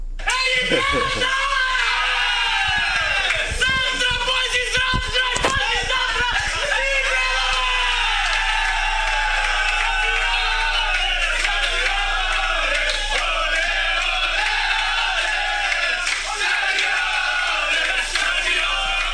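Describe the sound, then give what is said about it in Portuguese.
Shakhtar football players, led by Tyson, loudly chant and shout a war cry together in their own language in the locker room, voices overlapping in a sustained, rowdy roar with sharp yells near the start. “O, o, o Tyson puxando o, o, grito de guerra na língua deles, ó. No vestiário, olha aqui.”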